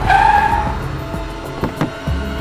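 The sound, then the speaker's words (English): A taxi's tires screech loudly as it brakes hard to a stop, a shrill squeal followed by the low rumble of the engine idling and a few soft knocks. “Taxi!”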